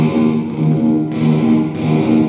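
Electric guitar heard only through a fully wet reverb mixed at 100%: a loud, sustained, smeared wash of chords with no clear picking attacks, swelling and shifting slightly, with no one speaking.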